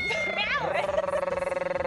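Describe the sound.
A voice imitates a cat's purr, sliding up into a steady, rapidly pulsing rolled rumble that continues fairly loud to the end.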